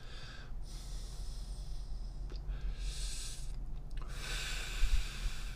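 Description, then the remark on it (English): Airy inhaling from a vape, drawn in several long hissing pulls with brief pauses between them, over a low steady hum; no one speaks. “Take a little little break here and hit my vape.”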